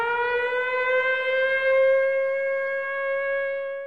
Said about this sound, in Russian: Основной угрозой для ленинградцев стали вражеские самолеты – а самым страшным звуком — сигнал воздушной тревоги.